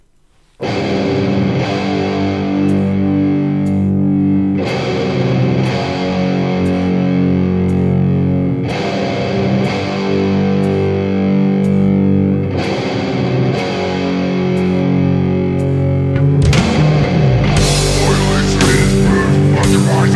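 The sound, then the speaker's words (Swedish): Loud, heavily distorted rock song plays on the radio continuously with crunching guitars, steady pounding drums and dense harmonic layers, building into a noisier, more chaotic section near the end. No one speaks. “det är … och Låten heter …”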